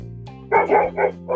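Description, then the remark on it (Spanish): A small dog barks four times in quick succession, sharp, high yaps over a low, steady background hum. “porque mandaban a un, a un, animal al espacio, mientras que Estados Unidos estaba ahí como ya tenemos que ganar una perrita que fue al espacio, tenemos que llegar a la luna, sí o sí.”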